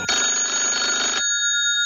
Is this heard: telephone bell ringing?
yes